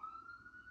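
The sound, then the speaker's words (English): An ambulance siren sounds in the background as the ambulance goes by, a brief steady high-pitched wail with a slight rise in pitch, fairly faint, with no one talking. “it's fitting that right now an ambulance would go by.”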